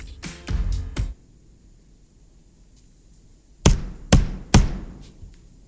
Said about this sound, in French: Quelqu'un qui cloue quelque chose. À ah, tu te rapproches, tu te rapproches. Ouais, mais c'est bon, on peut, euh, on peut accepter. C'est un marteau, effectivement.